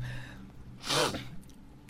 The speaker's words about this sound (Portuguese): sempre tem que dar uma fungada